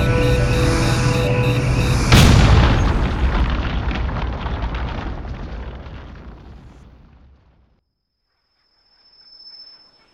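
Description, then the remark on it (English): A steady droning engine hum is cut off by a sudden loud explosion as a missile fired at the plane blows up the plane, the blast rumbling and fading over several seconds into silence, then a faint high whine. “Wait, further note to self don't wait as long to eject before said missile blows up your own plane again.”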